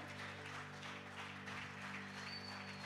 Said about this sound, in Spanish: Y ahí, dale el aplauso fuerte al Señor.